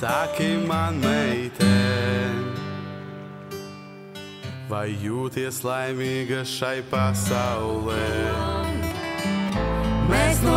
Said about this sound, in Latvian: tā latviskot šī dziesma, un tā skan šādi.